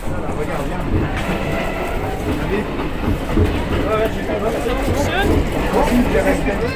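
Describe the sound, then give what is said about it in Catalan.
An old 1966 diesel railcar (autorail) of the Red Train, equipped with a bar, rumbles steadily along the rails, its loud, continuous engine drone mixed with rattling, clattering wheels, with voices talking underneath the noise. “També aquest tren, que és un tren, eh, ens ho explicarà segurament, és, eh, és un antic cotorrai, és un antic cotorrai i és equipat eh, d'un bar.”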